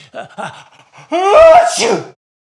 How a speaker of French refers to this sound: à vos souhaits, dit Pinocchio. Merci.